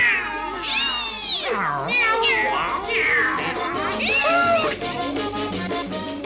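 A cat meows repeatedly and loudly, a run of long, wavering, whiny cries that rise and fall in pitch with barely a pause between them.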